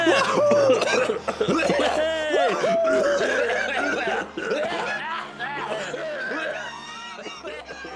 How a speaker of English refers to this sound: Hey, do you want to have a cough with me? It's safe.